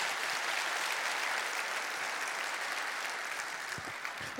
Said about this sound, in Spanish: Darte un aplauso. Darte un aplauso.